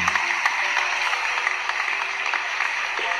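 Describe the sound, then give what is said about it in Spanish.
A crowd applauds steadily for a few seconds, a dense, even wash of many hands clapping at once, with no voices over it, greeting a co-host as he enters on a Radio Universidad program. “buenas tardes a toda la audiencia de Radio Universidad y gracias por los aplausos que nos acompañan en este ciclo 2021, ¿no?”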